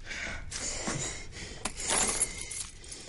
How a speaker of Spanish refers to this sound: Chris le quita unas llaves a Jeremy.